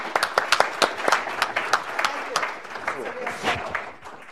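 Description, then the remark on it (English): An audience at a panel event breaks into applause for Congressman Bera as he leaves, a dense patter of many hands clapping at a steady level for several seconds, with sharp individual claps standing out and a few murmured voices mixed in. “Um, uh, Congressman Bera has to leave, and for a greater cause, we will just give him an applause and say, thank you so much for coming.”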